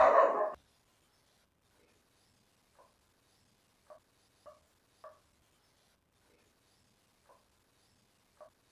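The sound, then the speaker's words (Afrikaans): Dogs bark outside, a scattered series of short, faint yips spread across several seconds after a brief louder burst at the start, with no one talking. “En enige as jy aandag aftrek, al die honde daar buite, die verkeer.”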